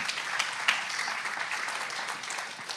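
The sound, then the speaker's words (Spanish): An audience applauds, a steady wash of many hands clapping together at moderate volume, dense and continuous throughout with no voices standing out. “Den un aplauso si quieres, está bien.”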